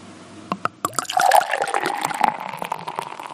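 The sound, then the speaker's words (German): A few sharp clinks, then beer pours steadily from a corked bottle into a glass with a rushing, fizzing gurgle as it foams heavily, fairly loud for about two seconds. “Das hört sich auch schon schön an.”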